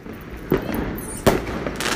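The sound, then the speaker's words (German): Two sharp firework rocket bursts go off about a second apart, each a sudden bang trailing into crackle, over a steady hissing outdoor background with no voices. “Nächste Rakete!”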